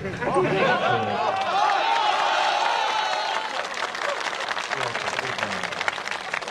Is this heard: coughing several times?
no